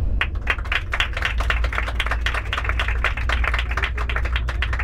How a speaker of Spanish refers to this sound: a los que pido un fuerte aplauso.